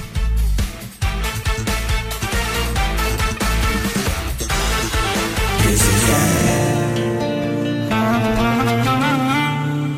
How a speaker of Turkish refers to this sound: Şu an dinlediğiniz şarkı sadece Kral Müzik YouTube kanalımızda.